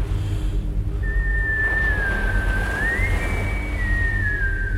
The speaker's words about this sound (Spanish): La melodía del silbido era lo único que tenía en la cabeza al día siguiente. Caminé por la playa silbándola para mis adentros.